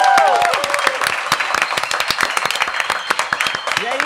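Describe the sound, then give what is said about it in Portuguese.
A round of applause from a small group, brisk overlapping claps sustained throughout, with a few brief vocal cheers or exclamations rising over the clapping at the start and end. “Do jeito que começamos, a todo mundo aqui, uma energia maravilhosa para toda a nossa família Copenhague, uma salva de palmas.”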